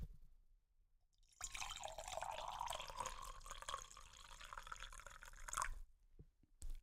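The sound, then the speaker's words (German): Liquid pours steadily into a glass jug for about four seconds, a bright gurgling stream with a rising tone as it fills, ending in a few small drips and a soft smack. “du bekommst wieder Füllgeräusche, aber jetzt diesmal Kanne Glas.”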